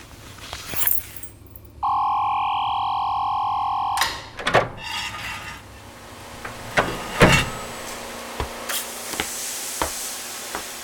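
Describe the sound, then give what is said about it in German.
A steady whirring tone gives way to sharp metallic clicks, scrapes and rattles as a locked entrance door is forced open with a screwdriver, moderately loud with no voices. “Och Mann, Türen sind verschlossen. Kein Problem, ich hol mir einen Schrubbezieher aus meinem Beutel.”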